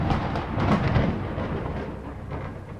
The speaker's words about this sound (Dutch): Eh, je hoort de donder naderen en begint eh, stevig te rommelen. Ehm, iedereen wordt toch een klein beetje ongerust. En plots, eigenlijk niet ver van ons, in de weide waar wij lopen, slaat het bliksem een eerste keer neer